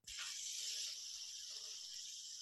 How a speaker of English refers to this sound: Because I've been just playing with a fidget spinner this whole time. I wonder how that sounds. I can't wait to edit this later. That's gonna sound awesome.